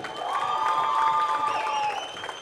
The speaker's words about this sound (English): Would you give the Lord a hand clap of praise in here?